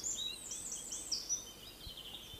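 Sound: birds singing outdoors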